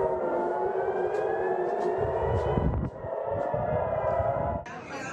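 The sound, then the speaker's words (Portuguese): Air raid sirens wail steadily across Tel Aviv, Israel, their sustained, layered tones filling the whole stretch with an echoing quality, while low rumbling noise sits underneath. “Enquanto a trégua não é anunciada, as sirenes voltam a soar em Tel Aviv.”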